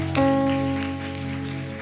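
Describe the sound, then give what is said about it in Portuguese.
A crowd claps steadily, applauding the Lord for a woman's life, the applause a fairly loud wash of noise blended with a sustained keyboard chord that holds underneath from start to finish. “Aplauda o Senhor pela vida dela.”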